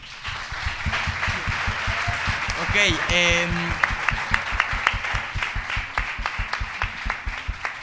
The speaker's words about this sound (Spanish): Aplausos, por favor.